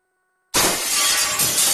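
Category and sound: sound effect, glass shattering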